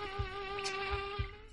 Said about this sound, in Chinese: 这些人也是遇到过不少怪物的，当然不会对这些看上去就非常吓人的蚊子掉以轻心。